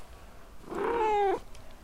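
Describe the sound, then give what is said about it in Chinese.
A pet cat lets out a single drawn-out meow, fairly loud and steady in pitch before dipping slightly at the end, standing alone against a quiet background with no talking. “如果你们能自己铲，我就给你们喂罐头，怎么样？”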